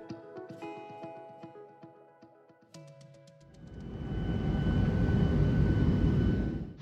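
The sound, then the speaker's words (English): Inside an airplane cabin landing in Bucharest, Romania: a few seconds of faint ringing tones and clicks, then a loud, steady rumbling roar of engines and rushing air swells up and holds to the end. “What you are hearing is the arrival of my family and I into the city of Bucharest”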